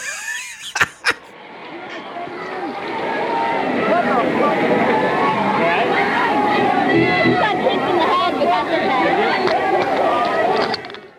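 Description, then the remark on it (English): A couple of sharp knocks, then a dense concert crowd murmur swells up and holds steady: many overlapping voices chattering and calling out at the very end of a live song recording, after the song is over. “But if you listen to the very very end after the song's over, there's like crowd noise, and very clearly there's a girl going, "I got kicked in the head, but that's okay."”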